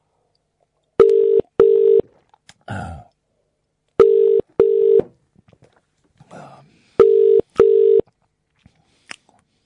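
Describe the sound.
A loud telephone ringing tone on a call, sounding as three double-burst rings in a steady repeating rhythm, with a brief voice and a short rustle in the gaps between.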